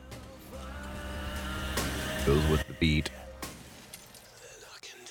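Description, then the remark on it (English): Glass shatters in a bright, crashing burst over a steady synth music bed in a 2016 song, followed by a couple of sharp clinking hits in rhythm with the beat, while someone talks briefly over it. “Then you're gonna hear this glass breaking.”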